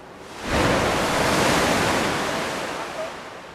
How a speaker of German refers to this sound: Dann erreicht die erste Welle das andere Kanalende und kracht gegen eine Wand.